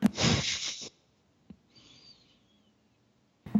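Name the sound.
sneeze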